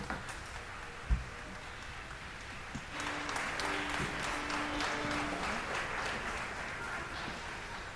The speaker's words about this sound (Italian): l'applauso del pubblico.